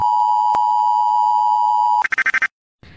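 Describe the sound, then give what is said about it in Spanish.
A loud, steady electronic tone holds for about two seconds, then breaks into a quick series of higher, rapid pulsing beeps, like an emergency alert alarm for Mexico City, before cutting to silence. “Alarma de emergencia para la Ciudad de México.”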